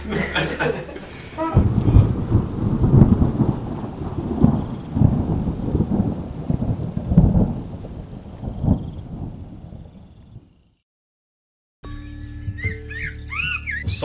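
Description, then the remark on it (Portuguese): Heavy rain pours while deep rolls of thunder rumble loudly for about ten seconds, then fade into a brief silence before birds begin chirping. “se abrigando de maneira furtiva entre os arbustos, cobrindo seus corpos com folhas para evitar chuva”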